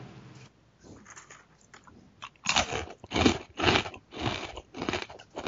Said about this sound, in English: Who's that? That's me eating wow. a pretzel.